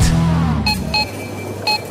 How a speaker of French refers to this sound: Ça, pour certains, c'est l'épicerie pour une semaine. Trois bips.